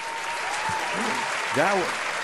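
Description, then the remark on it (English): Steady audience applause after a sung performance fills the whole clip, a dense wash of clapping with no break, while a brief voiced cheer or shout rises over it about two-thirds of the way through. “A Thank big round of applause one more time.”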